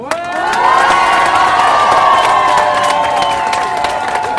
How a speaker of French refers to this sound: Et c'est ça qui mérite avant tout un tonnerre d'applaudissements.